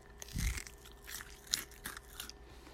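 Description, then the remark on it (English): Crunchy biting and chewing of a home-cooked spicy chicken nugget with a firm, crunchy coating, with a heavy first bite followed by several sharp, crackling chews at an uneven pace, no talking. “And um, their coating is nice. It is spicy and it is kind of firm and crunchy here.”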